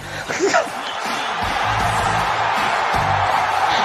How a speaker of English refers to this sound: When Vince came out listen to the pops that this crowd's giving for just the idea that this might happen. like they can't contain themselves.